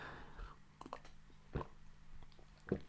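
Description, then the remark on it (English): Quiet sipping of coffee at 2 in the morning: a few soft slurps and gulps, short wet mouth clicks spaced about a second apart, over a faint low hum with no talking. “It's 2 in the morning, and I did something I'm about to do now, which is have a sip of my coffee.”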